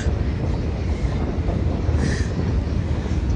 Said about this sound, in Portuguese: E do meu lado esquerdo, do lado da estrada, passando um trem gigantesco.